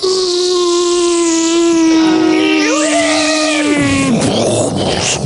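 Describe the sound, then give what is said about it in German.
A voice imitates an airplane crash as a sound to guess in a game: a loud, steady droning whine bends upward, then sinks, and breaks into a rough, noisy burst of crash noise at the end. “Ähm, ein Flugzeugabsturz. Sehr gut.”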